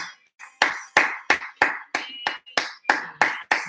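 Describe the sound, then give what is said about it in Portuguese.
Steady hand clapping as a round of applause for a woman: about ten sharp claps in an even rhythm after a couple of softer starts, with no voices over it. “Uma salva de palmas para ela.”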